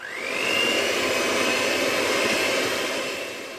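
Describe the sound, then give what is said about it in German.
An electric hand mixer with dough hooks kneads a dough of wheat flour, spelt flour, sunflower seeds and dissolved yeast: a whine rises as the motor spins up, then settles into a constant, loud buzzing whir with no voices. “Mit Knethaken wird jetzt alles verrührt.”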